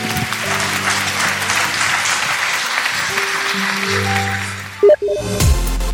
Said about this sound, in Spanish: Dale un fuerte aplauso Señor.